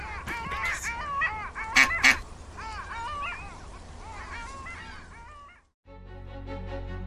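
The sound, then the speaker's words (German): A flock of ducks being fed pieces of bread quacks and squawks busily, overlapping calls chattering continuously with two sharp, louder bursts early on, before the sound abruptly stops and a brief tonal passage follows. “Noch ein Stück Brot für die Enten”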